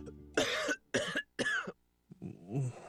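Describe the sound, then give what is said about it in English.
Three harsh, wet coughs in quick succession, loud, followed by a rougher hacking, throat-clearing sound as a person with a nasty cold keeps coughing at night. “when a nasty cold keeps you up all night.”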